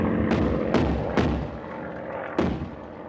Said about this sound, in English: Overhead, an enemy plane had been dragging, drumming slowly round in the pool of night, drawing up bursts of gunfire. Nosing, pausing, turning, fascinated by the point for its intent. The barrage banged, coughed, retched.